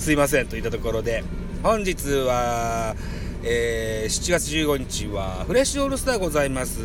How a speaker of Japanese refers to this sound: 現在車の中です。外は炎天下です。申し訳ないけど、ちょっとエアコンかけさせてくださいね。雑音入ってると思いますけど、あの、申し訳ない。あの、めちゃめちゃ暑くて、